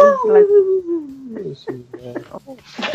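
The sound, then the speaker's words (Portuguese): A person imitates their dog's new barking technique, which sticks all the barks together: a drawn-out, falling howl-like whine that breaks into a quick string of short barks running into each other. “Cara, o meu cachorro tá com uma nova técnica de latido. Ele tá com aquele latido que ele gruda os latidos todos, faz assim.”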